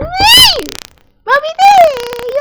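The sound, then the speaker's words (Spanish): Two loud meows from a startled female cat: a short rising-and-falling cry, a brief pause, then a longer, drawn-out wail that trails off, with no talking. “Asustaste mi gata.”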